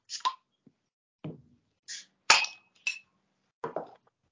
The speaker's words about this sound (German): Ich habe hier ein Bierchen stehen und kann es kaum abwarten. Ich auch. Gut. Komm, dann lass uns doch mal ein Bierchen öffnen.